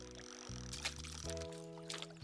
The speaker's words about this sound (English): Listen to the water. The water? what for? It will give you the clues to where the fish are.